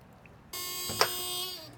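A door intercom buzzer, rung by a reporter from Norwegian radio station P3 at a building in Trondheim on 27 December 2016, sounds a steady, harmonic-rich electronic buzz that starts abruptly and holds for over a second, with a brief click partway through before fading out.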